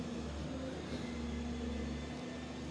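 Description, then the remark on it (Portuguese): A truck rumbles in a city-centre street, a steady low engine drone with a faint hum on top, holding at an even, moderate level throughout with no voices. “Ah, mano, é um caminhão aqui na.”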